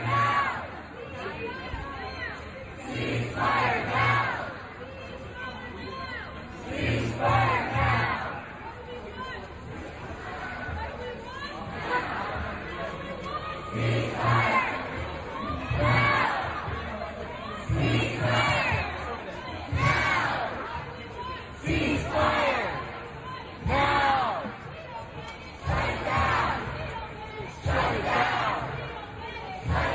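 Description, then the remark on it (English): A large crowd of pro-Palestinian protesters chants in rhythmic unison in the streets of Manhattan, New York, loud and sustained, with repeated shouted phrases rising and falling in regular bursts over a constant babble of voices. “Here's a little bit of what was going on in the streets of New York just a little bit ago.”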